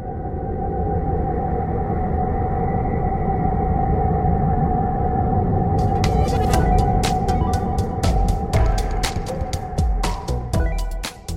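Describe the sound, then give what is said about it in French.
Plasma waves generated by Saturn under energy from one of its moons, captured by NASA and converted into sound: a dense, eerie rumbling drone with a steady whining tone. Irregular crackling clicks join partway through. No voices, fairly loud throughout. “Ces ondes magnétiques ont été traduites en sons audibles pour l'oreille humaine.”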